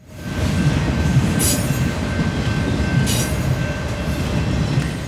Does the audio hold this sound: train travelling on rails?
yes